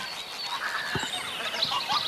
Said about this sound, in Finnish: Taas menee hanhi ja siipien äänet kuuluu äsken.